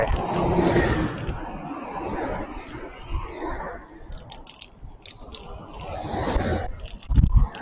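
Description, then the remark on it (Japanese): A wire lock rattles against a moving bicycle ridden down a slope onto a riverside cycling path into a headwind, giving off rapid, irregular clicks and clatters over a steady rumble of wind and road noise. “ちょっと、あれがワイヤーロックが当たって、ガタガタうるさい。”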